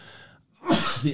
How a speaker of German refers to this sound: Gesundheit.